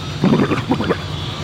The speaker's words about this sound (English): He takes another swig from the whiskey and then pours another swig out over his head shakes his face back and forth violently and makes kind of a flapping sound with his lips.